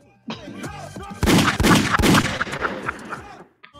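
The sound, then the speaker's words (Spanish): Gunshot sound effects ring out, a rapid burst of several loud, sharp bangs over about two seconds, preceded by a brief warbling tonal sound. “Esos tiros son para ti, que yo te agarre.”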